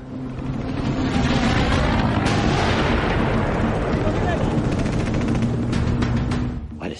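Heavy cannon fire from ships booms through a dense, continuous roar of battle, loud, with a few sharper blasts cutting through the rumbling din.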